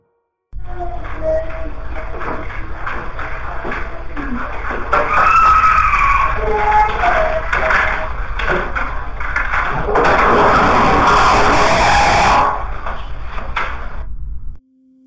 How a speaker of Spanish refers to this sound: Justo por los primeros sonidos que, que están en la grabación, sí la siento como acechando, como deambulando. Pero el grito al final es muy desgarrador